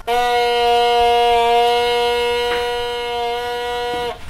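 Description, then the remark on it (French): A single long, steady bassoon note held for about four seconds, low and buzzy like a foghorn, loud and unwavering in pitch, blown by a beginner before cutting off abruptly. “Je vais reprendre le basson et tu vas la... Tu la tiens dans tes mains, tu la mets dans ta bouche et tu souffles.”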